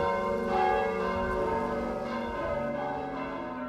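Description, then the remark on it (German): Several church bells peal together in a dense, overlapping wash of ringing tones, loud and sustained with long resonant overtones and no voices. “Kirchenglocken. Was wären unsere Städte und Dörfer ohne sie? Sie läuten zum Lobe Gottes und tragen seine Botschaften hinaus in unsere Straßen und weit über Wald und Feld.”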